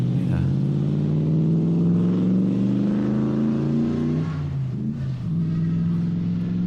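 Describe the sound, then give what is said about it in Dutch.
A powerful supercharged car engine rumbles loudly and steadily, its pitch climbing as it accelerates while driven at about 40 to 50, briefly dipping around a gear change, then pulling strongly again with a deep, throaty drone. “Maar ja, weet je, de auto geeft wel een soort is de rust van een lekkere dikke motor.”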